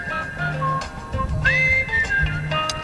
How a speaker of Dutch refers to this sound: Dit is al jaren mijn ringtone. Het, ehm, het is eh, oorspronkelijk uit de film. En oh, Turks fruit.